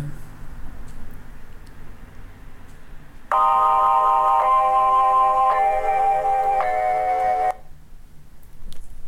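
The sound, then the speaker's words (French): An anti-addiction phone's incoming-call ringtone plays loudly for about four seconds, a bright electronic melody of steady tones shifting pitch in a few steps, over faint background hiss, then stops abruptly. “Euh, Il fait que deux bruits, Quand j'ai des messages et quand on m'appelle.”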